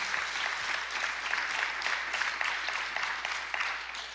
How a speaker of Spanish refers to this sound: Oh, puedes darle ese aplauso mejor al Señor, gloria a Dios.